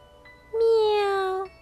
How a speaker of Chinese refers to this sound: 猫应了一声，可他心里想：“我才不会浪费时间去骑车呢。”